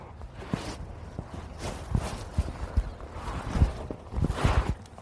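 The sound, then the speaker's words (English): A horse ridden while working cattle walks at a steady, unhurried pace, hooves clip-clopping in an uneven rhythm on firm ground, with soft shuffling and outdoor ambience between the steps. “Well, I am uh, done horseback for the day.”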